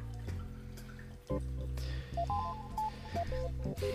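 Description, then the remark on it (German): Water with lemon slices and ginger is poured from a plain water bottle into a glass, a steady gurgling stream whose tone rises in short steps as the glass fills, with no one talking. “Da schenke ich mir mal was zu trinken ein.”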